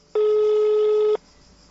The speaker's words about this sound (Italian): Qualcuno che squilla? Eh sì, eh, sento. Perché non prendono... Sentiamo se rispondono.